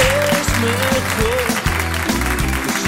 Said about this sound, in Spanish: Así que un aplauso para todo el equipo del Jarro Café de Madrid.